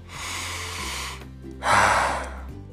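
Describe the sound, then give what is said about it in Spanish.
A deep breath: a long airy inhale followed after a brief pause by a stronger, louder exhale, with no one speaking. “Respira hondo.”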